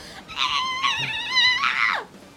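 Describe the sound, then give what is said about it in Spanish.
The character Shinji lets out one long, shrill scream, loud and strained, held for nearly two seconds with a wavering pitch before it drops away at the end. “Y súper emocional con sus reacciones. Y grita.”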